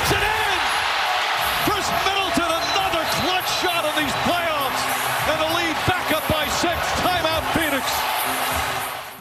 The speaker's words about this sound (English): Well, and you could hear the crowd in the background.